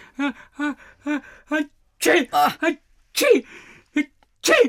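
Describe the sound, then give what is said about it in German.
A row of short, rhythmic gasping breaths builds up, then several loud, explosive sneezes burst out, each with a breathy, hissing edge. “Ah, Gesundheit und der halbe Tisch ist nass.”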